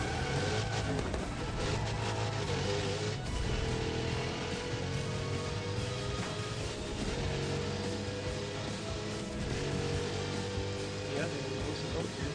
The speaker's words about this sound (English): Uh oh. I think I think the boat is moving. Is it? I think that's the boat moving I hear ahead of us. They, they were really far ahead of us. I hear a boat move.